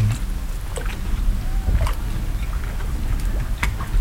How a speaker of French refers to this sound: Ici, on est dans un bateau sur la mer et des fois, avec les petits bateaux, on rejoint l'île aux moines.